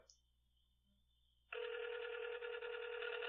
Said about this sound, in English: Yeah, if I was Uncle Tom, I wouldn't be answering this phone call either.